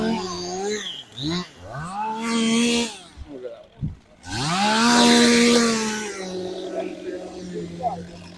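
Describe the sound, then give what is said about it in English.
Loud chainsaws cutting tree limbs, their engines revving and whining up and down in pitch through repeated surges, with a short lull midway before a long, roaring rev. “But yeah, it, we're coming up on all these chainsaws, so it's going to get real loud.”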